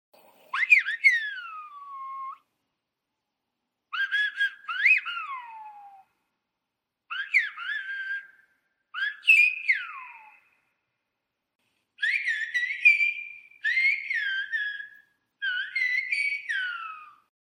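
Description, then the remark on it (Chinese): Whistled speech in the style of Silbo Gomero from La Gomera: seven loud, shrill whistled phrases with rising and falling pitch glides, separated by short silences, with no voices. “那我们也来放一段哥梅拉地方的口哨语，让大家听听看。”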